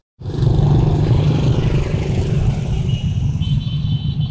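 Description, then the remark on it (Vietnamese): Dense, steady traffic roar on Giai Phong Road in Hanoi, Vietnam, on the stretch from Cau Trang to near the Dinh Cong junction at 5 p.m., cars and motorbikes passing continuously with engine rumble and occasional revving, loud throughout with no voices. “17 giờ, đường Giải Phóng, Hà Nội, đoạn từ Cầu Trắng đến gần ngã ba Định Công.”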